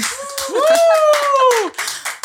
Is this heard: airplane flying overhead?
no